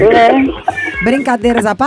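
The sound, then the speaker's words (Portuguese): A short, high, drawn-out meow like a cat's rises clearly near the start, followed by people talking over and around it. “Isso é um gato que miou aí?”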